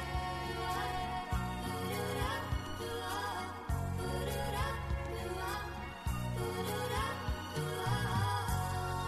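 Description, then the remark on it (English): A full-band song plays on its own with no talking, bass and chords pulsing in a steady rhythm at an even, fairly loud level. “Let the song do the rest of the speaking as it trails out into a podcast ad.”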